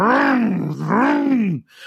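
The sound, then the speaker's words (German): A voice imitates a DTM racing car engine being started: a loud, buzzy vocal roar that revs up and down twice, then cuts off abruptly. “und alle springen auf, es fliegen Stühle, weil irgendwie das kleine Kind es geschafft hat, dieses DTM-Auto anzumachen.”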